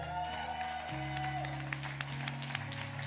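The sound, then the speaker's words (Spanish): A church audience applauds steadily at the close of a sermon, a dense patter of clapping over sustained keyboard chords that hold and shift beneath it, with no one speaking. “Y en ese aplauso, mi pregunta para terminar esta prédica es la siguiente.”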